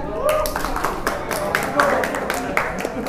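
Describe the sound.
A group claps steadily for about three seconds, a dense patter of sharp hand claps at even loudness, with some voices faintly audible beneath the applause.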